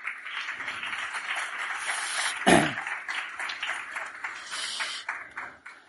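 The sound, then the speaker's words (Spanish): An audience claps together in steady, dense applause for about six seconds, with one sharper, louder clap or knock near the middle before the clapping thins out at the end. The applause is given by everyone at the start of a talk, as thanks. “Dicho todo esto, vamos a comenzar y si queréis, para ir entrando en calor, vamos a hacer un aplauso de todos con todos por agradecer tantos agradecimientos.”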